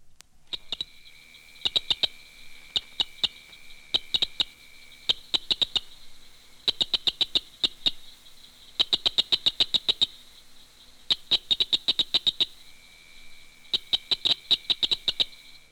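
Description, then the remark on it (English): A southern cricket frog (Acris gryllus dorsalis), the smallest species in the chorus, calls with sharp, dry clicks in rapid bursts that repeat every second or two, over a faint steady high-pitched insect drone. “cricket frog, Acris gryllus dorsalis, is the smallest species in the chorus.”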